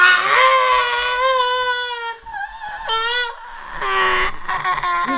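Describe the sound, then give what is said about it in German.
A voice lets out a long, piercing, high-pitched, deafening scream, held and wavering for several seconds with brief catches in between. It is loud and imitates the agonized shriek of a man falling a long way after throwing himself through a panorama window. “Sein endlos tiefer Sturz wurde begleitet von einem langgezogenen, extrem hohen und ohrenbetäubenden Schrei.”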